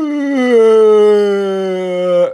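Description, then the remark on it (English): A voice imitates a loud, exaggerated yawn: one long, drawn-out vocal tone lasting a couple of seconds, its pitch slowly sinking before it cuts off abruptly. “Minecraft Kid was being extra, extra careful to make sure that he yawned as loud as possible”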